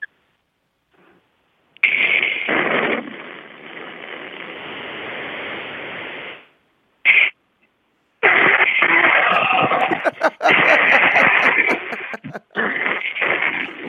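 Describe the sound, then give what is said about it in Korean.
A voice imitates a blender choking on a big chunk: loud, hissing whirr that runs for several seconds, cuts out, sputters briefly, then grinds on again with jerky stalls. “그 다음에 믹서기 갈 때 왕건이 걸렸을 때 나는 소리 한번 들려드릴게요.”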